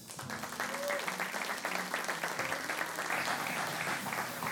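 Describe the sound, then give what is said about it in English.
A large audience at a church service claps steadily for several seconds to welcome the lead pastor, a dense, sustained wash of applause that fills the room, with faint voices and cheers mixed into the crowd noise. “And if you could welcome our lead pastor,”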